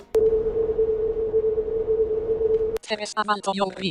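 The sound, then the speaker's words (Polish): A video game's audio cue for a wall on the left: a steady, low electronic hum with a rough noisy texture, held about two and a half seconds and cut off abruptly before a voice speaks. “Ściana po twojej lewej.”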